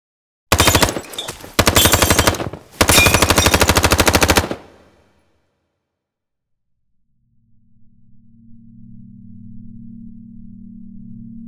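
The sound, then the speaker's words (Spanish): Three loud bursts of rapid automatic fire from a VZ58 rifle, fired in a pub by a masked man kneeling on the floor, each a dense string of sharp cracks, separated by brief gaps, followed by silence and then a low steady hum that fades in. “Uno de ellos empuña un rifle automático VZ58 y pone rodilla a tierra.”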